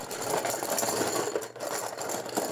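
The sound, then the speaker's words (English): Steady rattling and shuffling of many small paper entry slips being mixed in a metal popcorn tin for a prize drawing. It is a continuous clattering churn with no voices. “it's a popcorn, popcorn can. And Pop- he's mixing them all. Mix them all up.”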